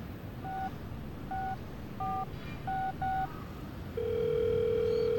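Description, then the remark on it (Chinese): Telephone keypad dialing a number taken from a notebook: five short two-tone beeps at an uneven rhythm, followed by a steady, louder ringback-style tone that holds to the end, over a soft background hiss. “他就从记事本中找到张姨的一个女儿的电话，拨打了过去，和她问了问情况。”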